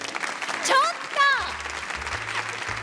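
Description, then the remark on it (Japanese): A crowd of junior high school students claps steadily, a dense patter of many hands, answering a request to clap if they did not know that Ota is promoting its conger eel (anago); a couple of voices speak briefly over the applause near the start. “大田のアナゴが力入れてるっていうのを知らなかった人は拍手してください”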